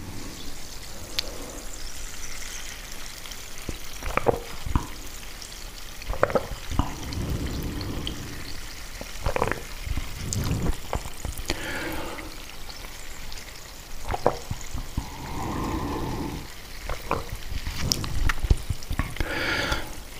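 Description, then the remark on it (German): Water is poured into a glass with a steady, hissing trickle, followed by scattered clinks and soft swallowing and gulping sounds over about twenty seconds, with no talking. “Mal einen Schluck Wasser nehmen.”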